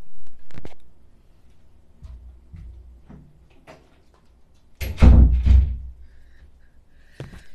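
A door swings shut with a loud, rattling thud partway through, framed by a few softer knocks and shuffles before and a sharp click near the end. No one speaks.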